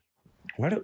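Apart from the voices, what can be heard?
throat clearing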